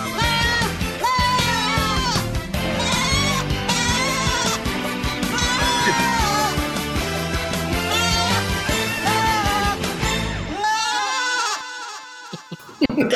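Goat bleats with a quavering, wavering tone repeat over a dense, loud musical backing, and a final drawn-out bleat rings out almost alone as the music cuts away.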